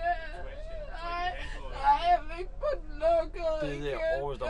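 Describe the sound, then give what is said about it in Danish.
A young woman in green rubber boots, sitting against a lit shop window on Strøget late at night, cries and whimpers, her voice rising and breaking in wavering, high-pitched sobs that continue unevenly throughout. “Hun græder og stiger ud i luften.”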